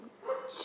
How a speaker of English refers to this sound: I hear your pup that's, yeah, that's my dog barking. Uh, someone must be delivering golf clubs or something.